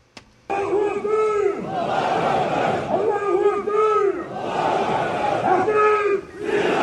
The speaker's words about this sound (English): we've got 10,000 Chechen security officials in Grozny going to Ukraine shouting,